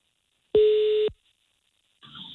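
A single steady telephone ringback tone sounds for about half a second, clear and fairly loud, followed by a short silence and then the start of another tone burst, as a radio show calls a listener.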